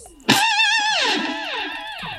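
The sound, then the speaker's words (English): A short electric guitar lick with a sharp attack, wide vibrato on a sustained note, then a few descending bent notes, loud with an effected, slightly distorted tone. “I'm annoying myself actually with all the guitar playing I'm doing.”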